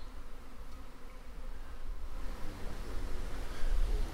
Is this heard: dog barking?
no